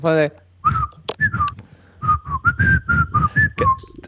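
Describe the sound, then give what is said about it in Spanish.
A person whistles a short melody into a microphone, a series of clear sustained notes with slight pitch glides, loud and breathy, with airy blowing noise beneath. “Y para la gente que quiere hacer un podcast, ya sabéis que queda muy bien silbarle a un micrófono lo que es soplarle.”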